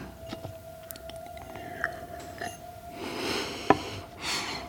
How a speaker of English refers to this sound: Have another sip of water.